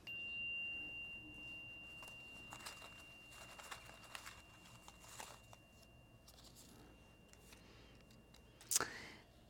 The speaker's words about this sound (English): And I'm going to chime us in, and then we'll set the intention for our practice today.